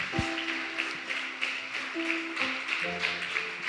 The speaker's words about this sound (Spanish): Junte sus palmas, dele fuerte el aplauso al Señor. Más fuerte ese aplauso.